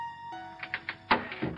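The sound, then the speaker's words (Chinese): A door slams shut with one loud, sharp thud, preceded by a few softer bumps, all over a faint steady tonal hum and with no talking. “刚说完，门砰的一声又关住了。”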